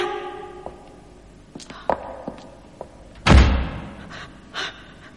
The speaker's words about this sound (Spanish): La puerta se ha cerrado.